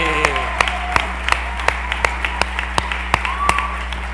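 Audience applause: steady, rhythmic claps land about three times a second over a faint background hum and crowd murmur, moderately loud and even throughout.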